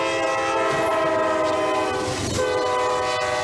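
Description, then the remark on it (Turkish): A speeding train rushes by a level crossing in Pamukkale, Denizli, Turkey, in snowy weather, where a minibus is stuck on the rails. Its loud horn blares continuously in steady harmonic tones over a rumbling rush of wheels, with a brief swell of roaring noise midway. No one speaks. “Hızla gelen trenin çarptığı minibüsten atladılar, saniyelerle hayatta kaldılar.”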